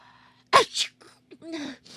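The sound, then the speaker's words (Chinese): A single loud, sharp sneeze from a story character who has a cold bursts out after a short moment of quiet, followed by softer breathy, voiced sounds as the breath settles. No words are spoken. “大大喷嚏，妈妈说我伤风了。”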